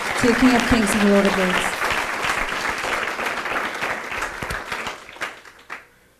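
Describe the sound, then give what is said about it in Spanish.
An audience bursts into loud, sustained applause with dense overlapping claps and some voices, tapering off over several seconds until only a few scattered claps remain. The applause is given to the King of Kings. “Dale ese fuerte aplauso al Rey de Reyes.”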